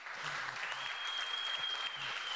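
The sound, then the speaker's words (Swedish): A church audience applauds the worship singers steadily, a dense wash of many hands clapping at an even, fairly loud level throughout, with a faint sustained high tone running beneath it. “Nu, tycker jag, nu, nu kan vi höra en, en applåd här tycker jag för kära lovsångare.”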